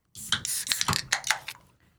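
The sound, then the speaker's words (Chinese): A drink can being opened: a cluster of sharp metallic clicks and bright hissing fizz bursts over about a second and a half, then fading away. No one speaks. “那我们现在先开始要 开罐， 好， 开罐之后我们再来聊。”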